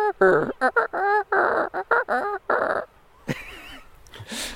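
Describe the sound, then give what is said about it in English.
A person vocally imitates a Manx shearwater call in the evening, wearing a head torch: a loud run of about eight harsh, crooning bursts in quick rhythm, trailing into softer breathy sounds. “What noise does a Manx shearwater make?”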